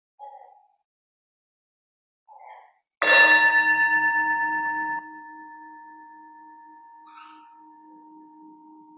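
A church bell is struck once, loud, to call people into worship, its rich tone ringing on and slowly fading over several seconds. A few faint, brief chirps come before and during the decay.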